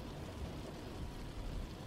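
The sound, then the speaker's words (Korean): A steady, soft wash of rain patters against the window of a taxi, with a low rumbling hum underneath and no voices. “차창에 부딪히는 빗소리만 아니면 어딘가 비현실적이다.”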